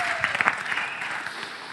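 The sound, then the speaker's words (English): An audience applauds steadily on cue, dense clapping from many hands at moderate loudness, with a few sharper claps standing out early on. “I expect you to clap every time I say it.”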